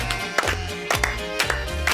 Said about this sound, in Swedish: Och här klappar vi med också.